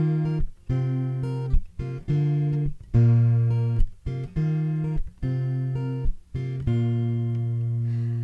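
A song's instrumental intro plays, with sustained, bright keyboard-like chords changing about once a second in a steady rhythm, clear and fairly loud, and no voice.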